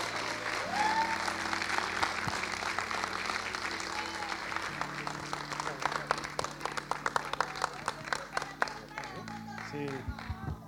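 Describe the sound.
An audience breaks into sustained applause for the man bringing today's sermon, dense clapping filling about ten seconds before thinning into distinct individual claps, with a steady low keyboard chord and some voices underneath.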